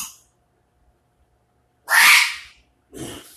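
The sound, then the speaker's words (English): A sharp, loud sneeze bursts out after a moment of quiet, followed by a shorter, softer second burst, like a snort or sniff. “No, I guess I should say you know like that was that was a mathematical like sneeze it bothers me.”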